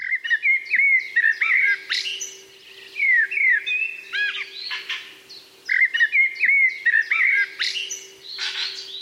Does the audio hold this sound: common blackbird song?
yes